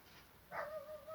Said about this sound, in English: I'm sure you hear that. Hopefully that shut door. It's probably not gonna stop it. Um, but yeah, so that's that. Um, we're gonna try to continue this. You might hear the dog there. Um, you know, the dog's not gonna stop us right now.